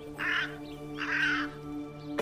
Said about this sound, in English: I have the crow. The crow speaks to me. Therefore, I am not alone.